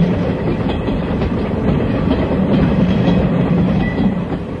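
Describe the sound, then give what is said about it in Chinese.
A train rumbles steadily and loudly, with a dense low roar and faint rhythmic clatter of wheels on track, as it enters a mountain tunnel. No one speaks. “哎，哎嘘，火车要进山洞了。”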